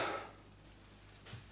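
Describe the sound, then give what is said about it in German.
A door swings shut with a soft, muffled thud at the start, followed by a faint knock a moment later and then near silence. “die Tür ist zu.”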